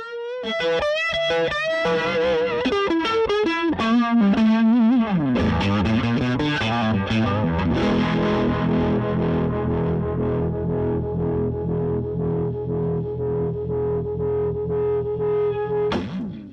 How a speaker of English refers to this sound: So uh, let's let's hear the same amp with a strat.